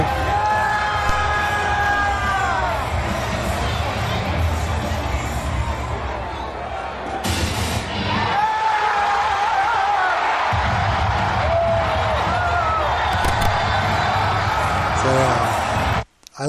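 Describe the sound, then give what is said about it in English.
A large arena crowd at the start of Monday Night Raw roars and cheers continuously, with overlapping shouts, whoops and rising pitched yells, loud and dense throughout before cutting off abruptly at the end. “This is the crowd getting into.”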